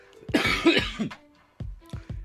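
A series of close, raspy coughs: a dense burst of several harsh hacks in the first second, a brief pause, then a few more separate coughs toward the end.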